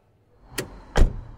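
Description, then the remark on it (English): Two car doors shut in quick succession as people get into the car to start off, the first a lighter clack and the second a heavier, bassy thud, with a faint rumble of the car around them and no talking. “We got into the car and started off again.”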